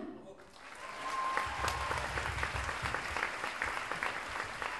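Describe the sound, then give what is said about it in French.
At a concert, an audience bursts into sustained applause for the lighting technician, a dense wash of clapping that swells quickly and holds steady for several seconds, with faint crowd murmuring underneath. “qui est aux Lumières et que vous pouvez applaudir.”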